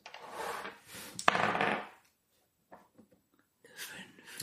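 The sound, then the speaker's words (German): A twenty-sided die, rolled for a social check, clatters across a tabletop: a sharp knock amid rattling tumbles, a brief pause, a few small ticks as it settles on a five, then more handling noise. “Äh, würfel mal ein W20 auf äh, ja, Soziales.”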